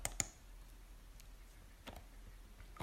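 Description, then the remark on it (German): A few sharp, quiet clicks of a computer mouse, clicking on the name George, spaced irregularly over low background hiss, with no talking. “Klick mal auf George.”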